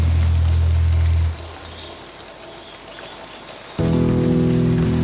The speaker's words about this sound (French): Un printemps débutant, ciel chargé, Jiboulé Des grêlons à foison sont tombés, giboulés. Tout surpris car cette pluie m'a trempé, giboulé.